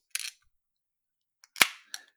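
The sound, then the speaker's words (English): A can of dark beer cracks open: a brief hiss, a pause, then a tiny click and a sharp, loud crack trailing into fizzing, followed by one more short hiss. No one speaks. “Lovely, good crack. Always good. Pour it in.”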